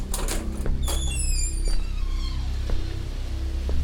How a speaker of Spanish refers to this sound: Se levantó de la cama. Caminó hasta la puerta de la recámara y la abrió.